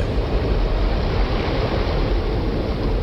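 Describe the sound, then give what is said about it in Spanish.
A loud, steady roar of river water bursting through an earthen dike into a small village during heavy rain, dense and low-heavy, pouring through continuously with no voices and no breaks. “Y mientras lo hacía, el niño escuchó un fuerte estruendo. El agua del río irrumpió a través del dique hacia la pequeña villa.”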